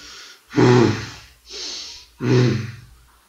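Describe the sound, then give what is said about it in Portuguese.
A voice imitates a Minotaur snorting as it draws and holds its axe: two loud, gravelly snorts, each preceded by a sharp breathy inhale, in a heavy rhythm with no words spoken. “O Minotauro puxa o machado dele, segura, dá uma rebufada.”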